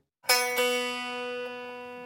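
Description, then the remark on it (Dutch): A single guitar string is plucked without the guitar's soundbox beneath it, giving a thin, bright, metallic tone that rings on steadily for about two seconds, fairly quiet, with no voices. “Als ik enkel een snaar aansla zonder dat daar een klankkast onder zit, dan klinkt dat zo.”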